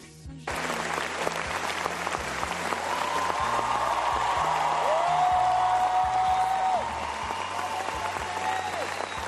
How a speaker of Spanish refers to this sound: Xavi Dolan, director franco-canadiense que se ganó un nombre a nivel internacional en 2014 con Mommy, que le valió el premio de jurado de Cannes. Si no, escuchen la ovación que se llevó en su día.